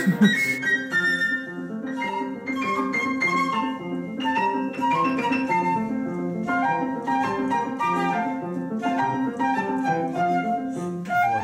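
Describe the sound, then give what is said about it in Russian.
A recording of not very good quality of an arrangement for flute and piano: a flute carries a flowing melody over steady piano accompaniment, a continuous instrumental passage at moderate volume with no voices. “через много лет я, кстати, сделал переложение для флейты и фортепиано и сыграл его”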